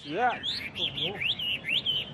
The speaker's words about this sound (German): Gerade die chinesischen Spottdrosseln sind begabt darin, Töne aus ihrer Umgebung nachzuahmen.